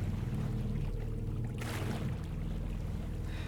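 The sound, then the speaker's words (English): A small motorboat drones steadily as it speeds around the hook of Roberts Island toward Beausoleil Bay, its low engine hum constant throughout, with a brief rush of splashing spray around the middle and no voices. “Once the buoys signal the slow zone is passed, we speed around the hook of Roberts Island until we are spit out into Beausoleil Bay.”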